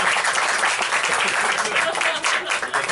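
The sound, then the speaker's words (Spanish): A crowd applauds steadily, many hands clapping together in a dense, crackling wash that stays loud and even for the full three seconds. “Un fuerte aplauso para...”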